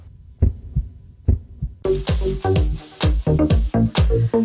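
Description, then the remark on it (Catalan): A heartbeat sound effect in a Catalan public-health ad promoting defibrillators at sports facilities opens with two low lub-dub thumps, then driving music bursts in with sharp percussive hits that keep pulsing to the end. “Tots som un batec.”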